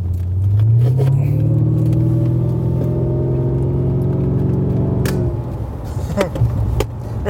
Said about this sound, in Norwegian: Den går faktisk ganske bra, den bilen her.